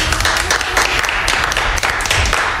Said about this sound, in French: On applaudit donc Café Bertrand.